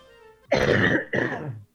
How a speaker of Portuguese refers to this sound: Tá a tosse, né? eu vi o peito dele saindo tudo pra fora. Eu tô conseguindo tossir, pô.